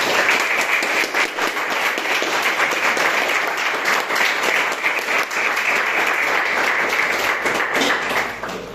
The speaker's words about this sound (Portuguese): Pode aplaudir Jesus de novo?